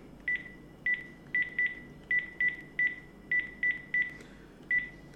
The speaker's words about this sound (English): So I'm going to pick up my landline phone here and dial my iPhone.